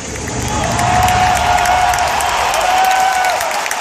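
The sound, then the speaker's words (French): A large audience in a hall at a video game conference roars with loud, sustained cheering, screams and applause at the announcement of a game remake, a high whooping shriek rising above the dense crowd noise throughout. “Il suffit d'entendre les cris dans la salle lors de l'annonce du remake de Final Fantasy VII pour saisir l'enthousiasme”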